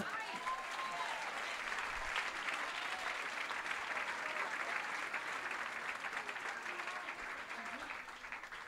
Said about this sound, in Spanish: Dile a la que te queda al lado, te sentaste al lado de una mujer importante. Dale un aplauso.